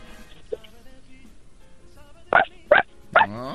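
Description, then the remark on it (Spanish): A child, asked whether they can make the sound of a puppy, imitates a puppy's bark with three short, bright yips in quick succession, fairly loud and evenly spaced, the last trailing into a brief whine. “Muy bien, ¿tú sabes hacer el sonido de un perrito?”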